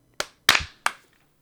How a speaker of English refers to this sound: And then we will clap sync in three, two, one.